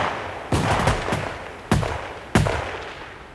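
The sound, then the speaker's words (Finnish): A ragged burst of several sharp gunshots from an execution by shooting, followed by two more single loud shots spaced about a second apart, each cracking and echoing briefly. No voices. “Minä kiroon sen, jonka takia minä joudun tähän ammuttavaksi.”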